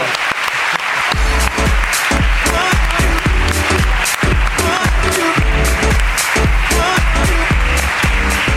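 Loud, sustained audience applause fills the whole stretch, a dense wash of clapping with a steady rhythmic low thumping pulsing beneath it and no talking.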